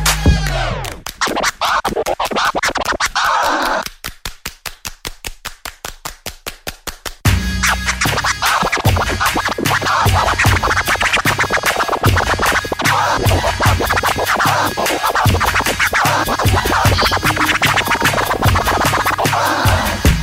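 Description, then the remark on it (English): Loud DJ turntable scratching cuts rhythmically over a pounding hip-hop beat, with a brief stuttering break before the full groove returns and carries on steadily to the end. “This is Pastor AD3 from Kansas City, and you are now listening to … on the ones and twos.”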